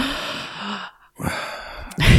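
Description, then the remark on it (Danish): A person imitates gasping: sharp, breathy intakes of air, fairly loud, broken by a brief silent pause before a final forceful gasp. No words are spoken. “Men også sådan, hvad skal man sige, sådan hørelsen, altså det der med sådan at høre min partner gispe, eller ja.”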